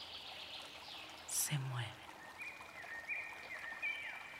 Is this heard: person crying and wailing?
no